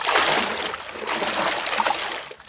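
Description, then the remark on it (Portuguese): A steady rush of water pouring for a couple of seconds, a continuous splashing hiss that tapers off at the end, with no voices. “Água, querido, de novo, hein?”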